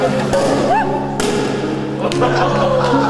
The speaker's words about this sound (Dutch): Die, die champagne... Die, die, ja, is daar? Ja, ja, die kurken die eraf knalden.